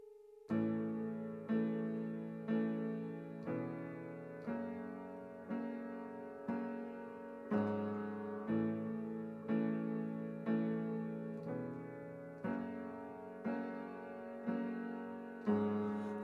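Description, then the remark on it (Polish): The instrumental intro of a new version of a previously released song plays: rich, sustained chords struck in a steady pulse roughly once per second, full and fairly loud, with no voices over it. “zróbmy zamianę, bo ustawiliśmy jakiś e, utwór, chyba drugi z tracklisty, ale posłuchajmy czegoś, co już było znane wcześniej, teraz jest w nowej wersji”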